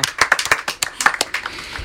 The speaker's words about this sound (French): on peut l'applaudir encore une fois d'avoir chanté comme ça.